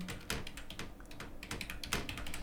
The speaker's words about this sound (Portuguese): É que eu tô digitando já até, até com raiva desse frete.